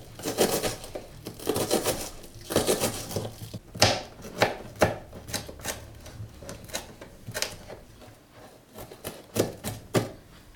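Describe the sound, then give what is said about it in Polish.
A knife chops rapidly on a cutting board, sharp taps coming in quick irregular bursts as half an onion is diced into tiny pieces, with no talking. “I drobniuteńkie kawałeczki.”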